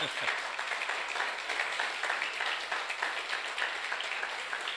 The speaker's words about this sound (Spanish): También quiero que le dé un aplauso a todos los adolescentes y su maestra, sus maestros.